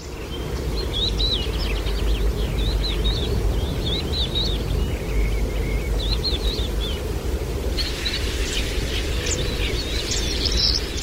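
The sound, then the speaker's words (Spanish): Wrens, finches and serins sing overlapping, rapid trills and chirping phrases among the trees of the Soto del Acebrón, over a steady, dense outdoor rumble, like wind or running water, with no voices present. “Los carrizas trinan más atrás, junto a pinzones y verdecillos.”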